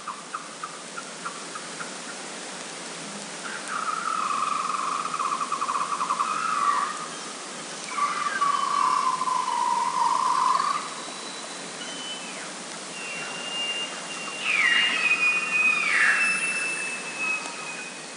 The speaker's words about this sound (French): Vous écoutez des belugas du Canada.